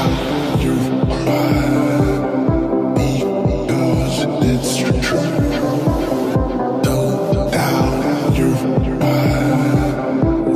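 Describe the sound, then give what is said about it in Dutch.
A newly released electronic music single plays loud and continuous, driven by a steady, thumping kick-drum beat under layered synth tones and bright high-end texture, with no voices. “hij heeft een single uitgebracht.”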